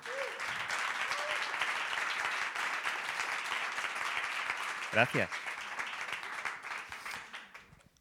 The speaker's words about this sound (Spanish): Recibimos con este aplauso a ….